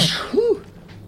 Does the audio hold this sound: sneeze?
yes